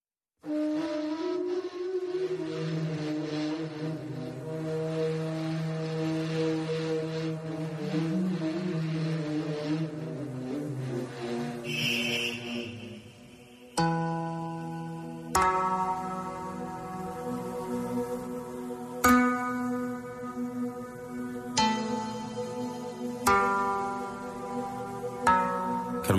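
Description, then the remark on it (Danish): A meditation track of so-called forbidden frequencies played over the radio: sustained, droning tones with slowly shifting pitch, then a series of struck, bell-like tones ringing out one after another with long, shimmering decays. No one speaks. “Det her, det er et, øh, et track, som øh, er brugt til det, som hedder meditation for nogen.”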